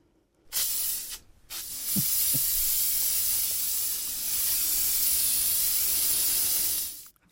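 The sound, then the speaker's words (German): A short burst of aerosol spray, then a long continuous hiss of an insect spray can being sprayed for several seconds, fairly loud, with no one speaking. “Es ist ein Insektenspray gewesen.”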